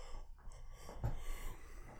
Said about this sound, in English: I tried to affect the yawn and it didn't work very well. It wasn't loud enough.